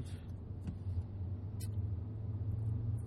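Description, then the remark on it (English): Steady low-pitched rumble inside a car stuck in traffic, a constant engine and road drone with a few faint clicks and ticks on top. No one speaks. “Um, fuck, I almost feel like I should have got off that last exit because now, now I'm stuck in some fucking traffic”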